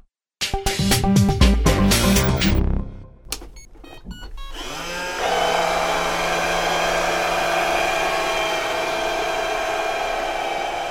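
A robot vacuum cleaner is switched on and powers up with a series of beeps and chimes, then settles into a steady, loud motor hum with a whirring brush drone while running its four-minute spot program, moving in circular, spiral paths; no talking.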